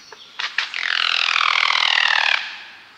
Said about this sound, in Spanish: Parecida a un pavo pero más delgada, de 60 centímetros de largo, y como su nombre lo dice totalmente negra, esta chachalaca se refugia en una enramada, silba y se desliza mientras aletea, el sonido resultante es maravilloso e incomparable.